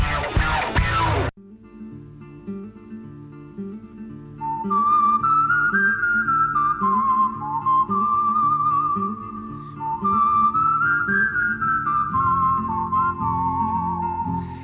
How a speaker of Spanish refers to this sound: arrancamos silbando alegremente eh, esta nueva etapa, este nuevo bloque de esta emisión de Una Cosa de Locos.